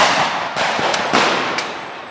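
Several sharp firecracker bangs, thrown by rioters fighting police in a square, pop at irregular intervals over a constant, dense roar of outdoor noise, the cracks loud with no distinct talking.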